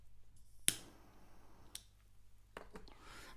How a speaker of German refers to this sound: So, ich habe die Kippe gedreht. Ich habe jetzt, ich habe so ein Feuerzeug. Das ist so ein halber, so ein Bunsenbrenner. Und das ist tatsächlich sehr laut. Da müsst ihr jetzt leider durch.